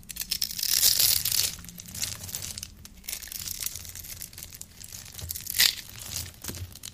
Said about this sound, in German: Und dann wird mit so einem scharfen Messer diese Seife ganz durchgeschnitten und dann zerfällt die in so viele kleine Würfel. Und oft haben die so bunte Farben und das ist sehr befriedigend, sich das anzuschauen, für mich zumindest.